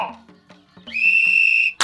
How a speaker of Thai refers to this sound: ขอให้ผู้เข้าแข่งขันทุกคนประจำที่ รอฟังเสียงนกหวีดนะ เข้าที่ ระวัง